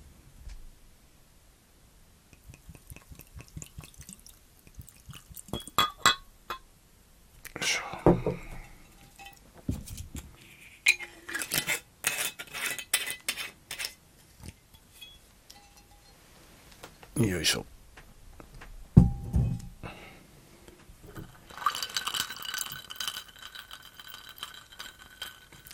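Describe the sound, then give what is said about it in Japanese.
Busker Irish whiskey poured over ice in a glass: clinking ice cubes, a glugging pour and bright glassy rattles, arriving in uneven bursts with quiet pauses, and a brief spoken grunt of effort. “飲み物は今、グラスに氷だけ持ってきました。これに、この間、この間うちから飲んでいるこのバスカー。バスカーというアイリッシュウイスキーを”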